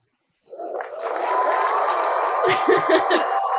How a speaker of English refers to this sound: Okay. Let's end with a little cheering.